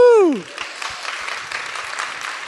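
A single falling whoop opens, then a Sunday church audience breaks into steady, dense applause that continues at an even level for a couple of seconds, with no talking over it.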